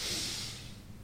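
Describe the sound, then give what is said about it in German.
A woman takes a deep, sharp inhale through the nose, a single breathy rush that swells quickly and then tapers off over about a second, heard alone with no talking. “schnauft tief durch die Nase ein.”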